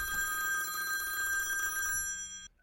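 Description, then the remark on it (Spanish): A phone call ringing tone on a normal 3G cellular call trills steadily with a bright electronic warble, continuous for about two and a half seconds before cutting off abruptly, heard on its own without voices. “Llamada número uno. Tecnología celular normal, 3G.”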